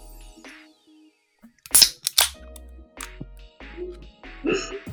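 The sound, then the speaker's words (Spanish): A beer bottle cap pops off with a sharp hiss, quickly followed by a second short crack. Faint murmurs and light handling noises surround it. “Entonces, eh, pues vamos a proceder a destapar las hermosas y deliciosas chelitas.”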